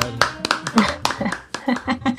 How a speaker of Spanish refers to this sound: Bien, un aplauso